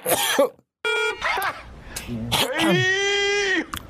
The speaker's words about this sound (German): Hust.